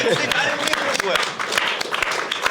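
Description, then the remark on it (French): A burst of steady applause, many hands clapping in a dense, crackling wash that holds at an even loudness for a few seconds, with voices talking and cheering over it. “Allez, on l'applaudit Allez.”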